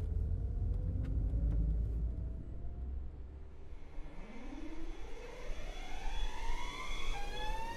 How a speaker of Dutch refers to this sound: Ondertussen is het 1 uur en ik zit in de auto bij mijn huisgenootje Joyce.